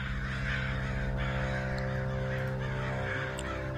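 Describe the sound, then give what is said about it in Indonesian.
Strange birds flying toward a place call with harsh, cawing cries, loud, layered over a steady dense background that fills the whole few seconds without any talking. “Burung-burung itu terus berterbangan menuju sebuah tempat yang memang menuju ke sebuah tempat.”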